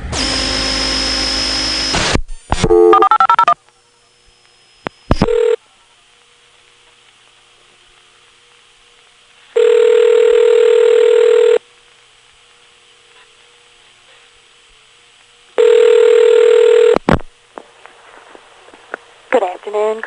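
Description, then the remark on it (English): A computer automatically dials a phone number: a quick run of dialing tones gives way to the line ringing, two long, steady rings several seconds apart, loud, with quiet stretches between. “I'm now going to have the computer go back and check with me on the phone listening uh, to see what some of those interesting things are.”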